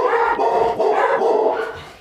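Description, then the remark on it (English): Two dogs, Chico and Sage, bark fairly loud, a steady run of overlapping barks and yips with no pause, fading slightly at the end. “Hey, dogs.”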